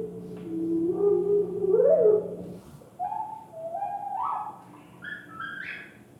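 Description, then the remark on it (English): The words "Where are we going?" sped up so they sound like whippoorwill song: two quick, chirpy whistled phrases with rising, sliding notes, the second climbing in steps to a higher pitch, fairly loud and without any normal talking. “could be mistaken for whippoorwill when the process is reversed and the words speeded up to the same extent as the bird song was slowed down.”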